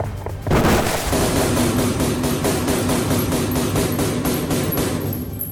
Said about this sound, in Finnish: Yliluutnantti ryntää huoneeseen sisään ja ampuu ainakin 30 laukausta räkäpäitä sotilaspoliisitoveriani naamaan vain noin metrin etäisyydeltä.